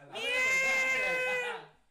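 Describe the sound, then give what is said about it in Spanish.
A person's voice imitates a cat's meow in one long, wavering, whiny cry lasting over a second, fairly loud, with no other sounds around it. “y se ponía a hacer como un gato, güey.”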